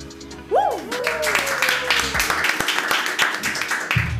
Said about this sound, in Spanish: Esta sería la segunda vez que se hace con público. Por favor, más aplausos.